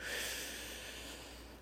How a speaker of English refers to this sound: even the deep breathing I stop to do regularly, like right now.